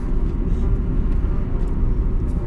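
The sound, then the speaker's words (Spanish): A car driving on the road, heard as a steady, loud low rumble of engine and tyre noise that stays constant throughout, with no voices. “Así que voy a parar porque, porque está claro que hacer un control o algo.”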